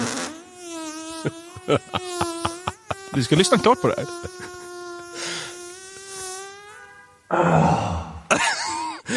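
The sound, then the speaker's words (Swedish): A long, drawn-out fart lasting about 58 seconds drones with a steady buzzing pitch, broken by rapid sputtering bursts midway, then gives way to a rougher, noisier blast near the end. A voice speaks briefly. “Man måste liksom hushålla med fjärten.”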